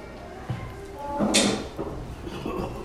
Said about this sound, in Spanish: Cierrale la puerta a Eduardo, por favor.